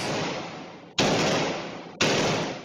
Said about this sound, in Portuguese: Câmeras também registraram o momento em que mais policiais chegam ao local. PMs e ladrões trocam tiros. É possível escutar as rajadas.